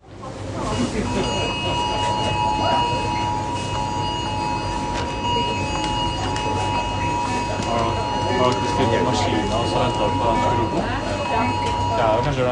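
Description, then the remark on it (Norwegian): Several mobile phones at the Torgsenteret shopping centre in Stjørdal sound the new emergency alert signal together: a steady, shrill electronic tone with high overtones that holds throughout, over murmuring crowd chatter and background bustle. “en ny type varsling, et nødsignal på mobiltelefonene.”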